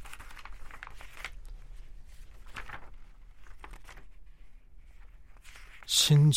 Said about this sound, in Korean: 신중하게 한 장 한장 한 장 넘기며 컬렉션을 살피던 중에 눈에 띈 것은 베이지색 서스펜더.